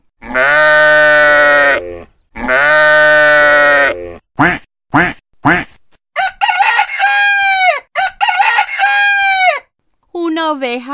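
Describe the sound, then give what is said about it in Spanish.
A rooster crows loudly twice, followed by a flurry of short, nasal duck quacks and squawky calls, all clear with brief gaps between. “un pato y un gallo.”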